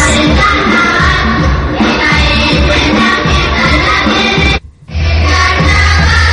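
A children's murga troupe performs loudly at the Carnaval de Las Palmas de Gran Canaria children's murga contest, a dense wash of group singing and pounding percussion running continuously, broken once by a brief silent gap near the end.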